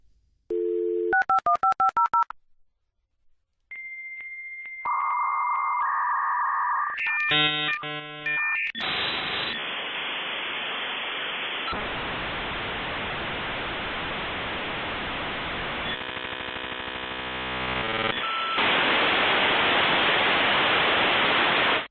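A dial-up modem connecting over a phone line: quick dialing tones, a steady tone and warbling handshake chirps, then long stretches of harsh hissing static that grow louder toward the end, with no voices.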